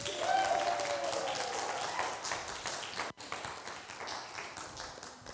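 A crowd applauds steadily, a dense patter of many hands clapping at an even loudness, with a brief cheer or whistle early on and a momentary break near the end.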